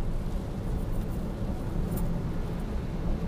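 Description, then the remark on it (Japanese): Steady low rumble of a car driving along a road beside the Kizu River on a rainy day, heard from inside the vehicle, with constant road and engine noise and no voices. “今はえっ、ー、と木津川沿いをずっと走っております”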